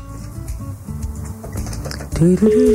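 Telephone ringback tone from an outgoing call placed by a radio show to a listener: steady electronic tones over a busy background, growing louder and clearer near the end.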